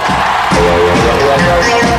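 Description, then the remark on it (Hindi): A crowd claps and cheers loudly for about two seconds to welcome a guest on a Fever FM production, a dense steady wash of applause with a few voices whooping through it. “अब जोरदार तालियों से स्वागत कीजिए”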